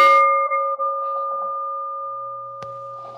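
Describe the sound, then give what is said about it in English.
A single struck meditation bell chimes to begin a self-acceptance meditation, its clear mid-pitched tone ringing on steadily and fading only slowly, with a brief click and a faint low hum near the end. “And I'm going to chime the bell here as we begin this resting in self acceptance meditation.”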